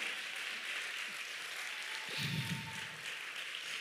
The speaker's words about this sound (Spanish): Fueron valientes, un aplauso a los valientes. ¡Wow!